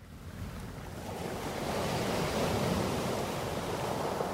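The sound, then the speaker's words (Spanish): Waves wash steadily onto a calm Red Sea beach, a soft continuous roar of surf that swells slightly louder after the first second and holds, with a faint breath of wind over it. “Las tranquilas playas del Mar Rojo, escenario de salida del rally más duro del mundo.”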